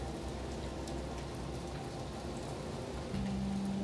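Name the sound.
heavy rain falling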